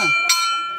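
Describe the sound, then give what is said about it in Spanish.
A single sharp clang of a boxing ring bell, starting a boxing bout, rings out and lingers with a bright metallic tone, right after a voice trails off at the start. “Pues iniciamos pues Campana.”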